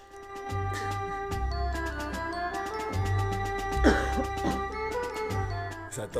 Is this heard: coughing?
yes